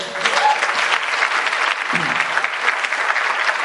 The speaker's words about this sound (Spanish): para quien pido un súper aplauso.